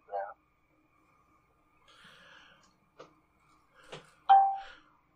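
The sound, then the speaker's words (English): A mobile phone going off with several short electronic chimes and beeps, spaced irregularly, ending in a louder bright tone that fades out. “My phone keeps on going off for some reason.”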